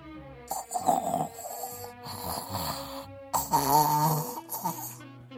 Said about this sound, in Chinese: 谁打呼噜啊？ 嗯嗯，吵死了！